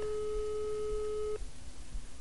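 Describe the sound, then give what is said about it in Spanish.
A landline call tone hums steadily for about a second and a half, clear and fairly loud, then cuts off abruptly, leaving only faint background noise with no talking, as someone calls a home landline phone. “Es que llamo al de casa porque es que si no el, móvil a veces no, me lo coge.”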